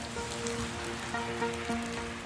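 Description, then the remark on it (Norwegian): Heavy rain from the extreme weather Hans pours down in eastern Norway (Østlandet) in a steady, dense, continuous hiss, with a faint sustained tone humming underneath. “Mandag og tirsdag blir de våteste dagene vi har sett på veldig lenge.”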